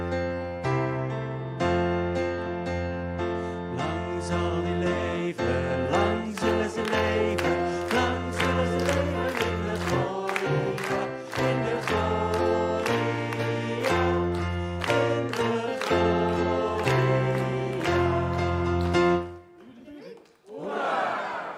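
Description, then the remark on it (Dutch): A crowd chants a Dutch "hiep hiep hoera" cheer led in by one person, in a loud, steady rhythm of repeated shouts, many voices in unison, building to a final burst of cheering at the end. “… zet hier de hyper de pieps in. Dat, zo doen we dat gewoon hier.”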